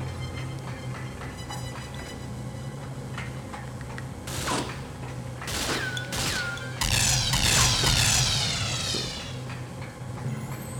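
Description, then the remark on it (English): Several sharp mechanical clunks, like a lock releasing, followed by a long, drawn-out creak as a heavy door swings open over a low steady hum. No one speaks. “Door unlocked. There we go.”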